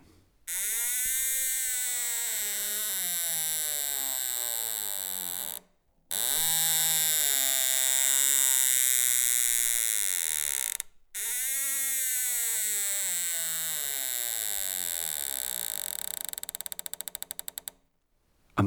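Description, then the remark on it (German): An unoiled door hinge creaks in three long, drawn-out groans, each a wavering, rising and falling squeal with dense harmonics, separated by brief silences. No voices are present. “es scheint fast so, als müsse die Tür alles kommentieren, was ein- und ausgeht.”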